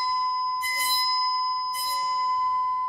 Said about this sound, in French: J'ai devant moi une plaque métallique carrée fixée par son centre. Je vais faire vibrer cette plaque grâce à cet archet. En vibrant, la plaque fera vibrer l'air et on va entendre un son. Voilà.